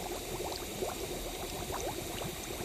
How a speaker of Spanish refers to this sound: ¿Sabes cuántas burbujas de Sprite entran en estos 15 segundos?